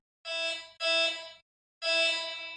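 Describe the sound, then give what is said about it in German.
Three bright, buzzy notes from a synthesizer programmed on a DSP, played completely dry, each about half a second long with abrupt starts and clean, sudden stops and no echo or reverb tail. The second follows right after the first, then a brief pause. “Komplett dry.”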